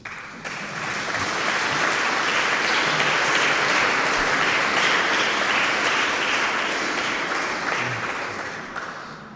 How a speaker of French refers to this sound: Si vous voulez applaudir, applaudissez.